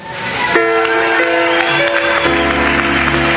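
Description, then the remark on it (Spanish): A crowd claps steadily throughout, applauding the Son of God, while sustained organ-like chords ring out loudly over the applause, the chords shifting once partway through, with no pauses. “¿Por no se pone de pie y le da un aplauso al hijo?”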